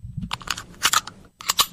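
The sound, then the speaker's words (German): Computer keyboard keys, Control and B, pressed to buckle the pilot's seatbelt in an airplane game: two quick bursts of sharp, crisp clicks separated by a short pause, with no one speaking. “Das machen wir mit Steuerung und B.”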